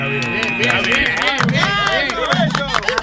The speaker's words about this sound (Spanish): Aplauso porque lo logró.